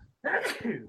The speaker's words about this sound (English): bless you again. Gesundheit. Yeah. God bless you.